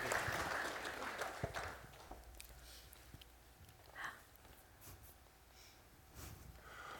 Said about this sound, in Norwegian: Flott. Skal vi gi henne en applaus? Ja.